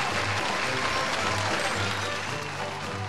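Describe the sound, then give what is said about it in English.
The audience of the show Everybody Calm Down claps and cheers steadily, a dense wash of applause with whoops and shouts mixed in, holding at a strong, even level throughout. “Um, the crowd going wild as they are wont to do.”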